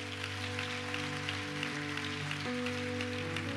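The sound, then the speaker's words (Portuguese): An audience claps loudly for Jesus in a steady, dense, continuous wash of applause, with sustained keyboard chords holding underneath throughout. No one speaks. “Vamos aplaudir Jesus bem alto.”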